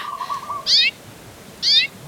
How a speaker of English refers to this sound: Do you hear those birds singing? I think it's the small yellow birds with black bills and brownish black eyes that are sitting in the tree above us. I hope they don't eat ladybugs like me. Those birds are called amakihi.